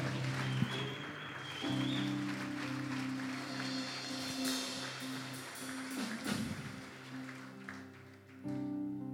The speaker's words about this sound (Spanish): Vamos, alguien que le dé un aplauso al Rey de Gloria en esta hora.